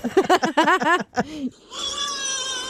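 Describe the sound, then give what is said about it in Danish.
A lyrebird mimics a crying baby with a rapid run of short, wavering wails, then a sustained, thin whistling tone. The sounds are moderately loud, with no talking. “det er altså en lyrebird, der sidder og siger, at der er helt klart at høre den baby græde.”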